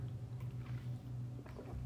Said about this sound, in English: So excuse me. I need a little sip of my water.